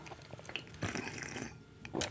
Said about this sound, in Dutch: Onze moeder die denkt nu, zit je niet aan het slurpen op Radio 1?